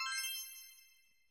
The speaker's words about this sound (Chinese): 小葵话一说完，他们的耳边便又响起了一阵铃声，接着。